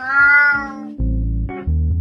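cat meowing

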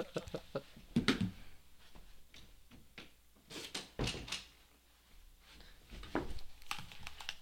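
door being closed

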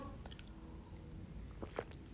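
sipping and swallowing water

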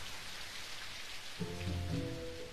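rain falling

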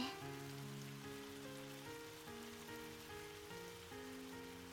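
rain falling

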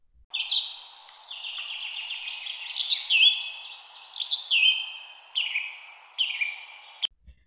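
birds chirping and singing

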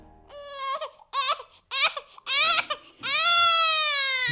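baby crying

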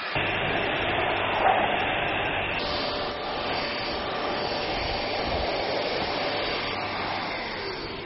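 vacuum cleaner running

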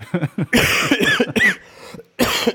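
coughing into the microphone

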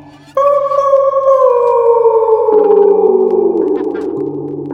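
dog howling

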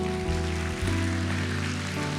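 audience applause

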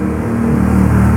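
motorcycle engine passing

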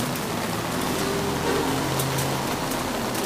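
rain falling

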